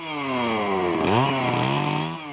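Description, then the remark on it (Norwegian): A chainsaw roars steadily, its pitch dipping briefly as the blade bites into timber before revving back up, then cutting off abruptly at the end. It is cutting materials for the frame of a simple house at a camp for FARC soldiers in La Carmelita. “Med motorsag går det kjapt å kappe materialer til reisverket til et enkelt hus.”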